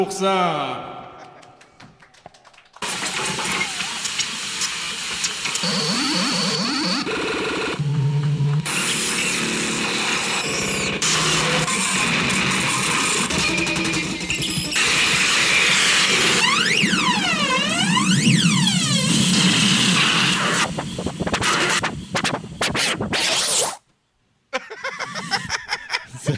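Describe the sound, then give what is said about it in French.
Japanese harsh noise music: a loud, dense wall of distorted static with screeching, swooping tones and drill-like grinding, lasting about twenty seconds before cutting out abruptly and briefly returning. “c'est le roi du noise japonais.”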